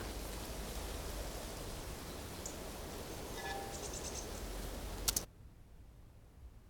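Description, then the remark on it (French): Steady, dense rustling of wind through reeds and grass fills the first five seconds, with faint insect or bird chirps above, then cuts off abruptly with a click into a quiet hush. “Et puis euh, les éléments qui se rajoutent, c'est des petites branches du vent dans les roseaux. Quand, quand il y a la bourrasque, il y a même un vent euh, dans les herbes qui donne un peu plus de, de matière.”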